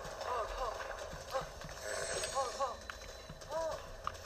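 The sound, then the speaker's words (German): Horse hooves clip-clop in a steady, moderate rhythm as a rider moves along a gorge toward a bridge, with a voice talking over the hoofbeats and some faint background noise. “So, wir reiten an der Schlucht entlang bis zu dieser Brücke.”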